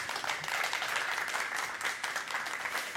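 Steady applause from an audience for two guests, a dense wash of many hands clapping at once, sustained at an even level for about three seconds with no voices over it.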